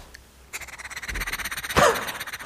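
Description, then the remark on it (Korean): A voice imitates a pressure rice cooker making freshly cooked rice, performed as an impression on a radio show at lunchtime: a steady run of rapid, rattling hiss pulses, swelling into a brief, louder whistling burst of steam before settling back into the rhythmic chatter. “자, 청취자분들에게 밥, 아, 갓 지은 맛있는 밥 어, 드린다고 생각하고, 바로 한번 밥솥 소리 들어보도록 하겠습니다.”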